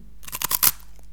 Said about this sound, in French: La recette est plutôt simple, de la farine, du beurre, du sucre et du lait. C'est un biscuit sec qui croustille.